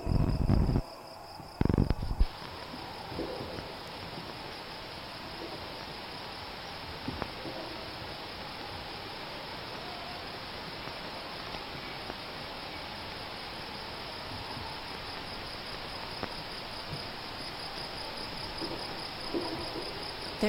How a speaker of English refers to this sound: an archive of the sounds of endangered night insects. And let's ask an imaginary artist to create a concert with those recordings. Now we have an audience. The sound of the old recording medium lets the audience know these are sounds from the past.